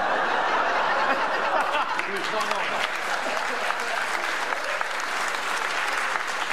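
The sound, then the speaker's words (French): An audience at a comedy show applauds a joke, a sustained dense crackle of many hands clapping steadily for several seconds, with a few scattered laughs and chuckles mixed into the crowd noise. “non, non, non, n'applaudissez pas ces conneries.”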